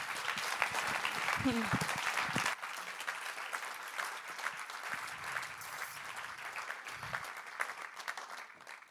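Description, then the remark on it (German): Audience applause fills the whole clip, a dense, steady wash of clapping hands that eases slightly after the first couple of seconds, with brief voices and laughter mixed in early on. “Geben wir ihnen doch einen Applaus, ja?”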